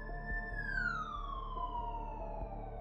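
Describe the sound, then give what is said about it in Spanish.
An ambulance siren wails loudly as the ambulance arrives at a hotel, its tone holding high and then gliding steadily downward over a low engine rumble, with no voices. “La ambulancia llegó aproximadamente entre 2 a 3 minutos.”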